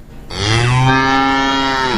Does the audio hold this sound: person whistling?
no